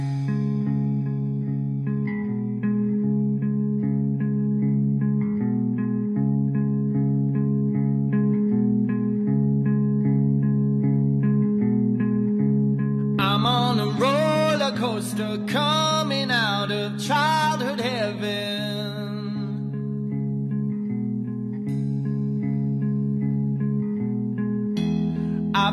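Loud, steady electronic music with droning, sustained chords, briefly overtaken midway by a burst of swooping, warbling high-pitched effects before settling back into the even drone. No voices.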